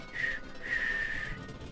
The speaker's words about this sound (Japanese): こう何食わぬ顔をしてね吹けないこう口笛吹きつつね